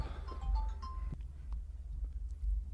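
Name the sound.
mobile phone ringing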